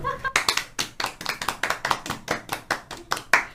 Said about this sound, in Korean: 네, 이 기회를 빌어서 한번 박수 한번 칠까요?